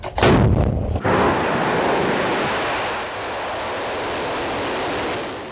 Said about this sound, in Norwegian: Det er et spektakulært syn med flammer, røyk og ei pil som på 20 sekunder akselererer til ei fart på 1000 meter i sekundet. Ingenting kan stoppe den nå.